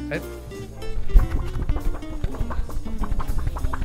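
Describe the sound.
Thick pages of a sketchbook with many blank pages are flipped in quick succession, a rapid series of crisp, papery flaps and rustles, with faint murmuring voices in the background.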